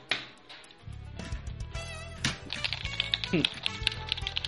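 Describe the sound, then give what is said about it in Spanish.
Rapid, uneven clicking of Xbox game controller buttons, pressed in quick bursts, with a voice or steady background sound running underneath. “Pues mira, este es mi control de Xbox y no se oye si lo presiono mucho.”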